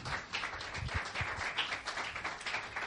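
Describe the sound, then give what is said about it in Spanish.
An audience applauds the Lord steadily, a dense wash of many hands clapping at an even level throughout, with a few heavier low thumps mixed in and no speech. “¿Cuánto dan un aplauso al Señor?”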